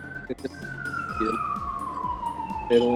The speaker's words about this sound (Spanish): perdón que tengo una ambulancia aquí afuera